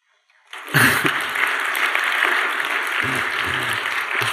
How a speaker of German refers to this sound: Ich habe tatsächlich nur eine Kunstpause gemacht. Ihr hättet gar nicht klatschen müssen, aber umso besser.